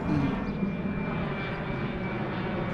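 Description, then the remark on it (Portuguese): An airplane crosses the sky over the Tagus riverside in Lisbon with a steady, low, rumbling roar that holds at an even, fairly loud level throughout, with no voices present. “Passaram os navios, os aviões cruzaram o céu”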